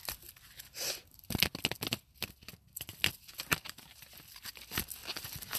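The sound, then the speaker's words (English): Tarot cards being shuffled before a five-card reading, a steady run of crisp papery flicks and slaps that come in quick irregular bursts with brief pauses, no voices. “Okay, so I'm going to shuffle this uh, three more times we'll get started.”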